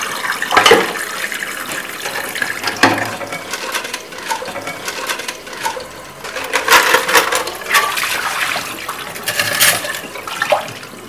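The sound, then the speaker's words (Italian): Kitchen whisks, just used to beat a mascarpone cream, are washed thoroughly under a running tap at the sink, a steady hiss of water broken by irregular metallic clinks and rattles as the wires knock together. No one speaks. “Adesso invece ci dirigiamo verso il lavello e laviamo per bene le fruste.”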